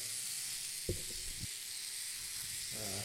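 An electric shaver buzzes and whirs steadily throughout, close and fairly loud, while brief low murmurs of a voice rise underneath it.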